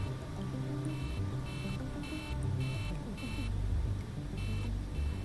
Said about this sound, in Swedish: När planet fortsatte att stiga till 3700 meters höjd började ett larm tjuta.